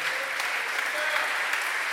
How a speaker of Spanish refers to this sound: Y si es para su vida Dios todopoderoso, dale un fuerte, pero bien fuerte aplauso al Señor.